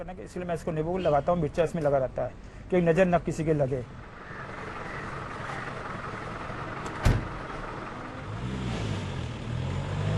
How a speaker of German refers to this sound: Sein Taxi, der Ambassador, ist nicht mehr der schönste. Aber Liebe macht blind, in diesem Fall auch taub. Er poltert, rattert, klappert. und die Sitze, sie quietschen.